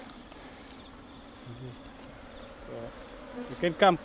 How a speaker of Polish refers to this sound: Tak, Pszczoły afrykańskie tak właśnie brzmią. Nie brzmi to fajnie, tak to powiem. Latają wszędzie. Trochę ciemno przed oczami się w tej chwili robi. Nie z emocji, tylko z powodu liczby pszczół.